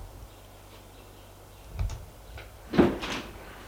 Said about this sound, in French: Elle ouvre la porte qui mène à la cour.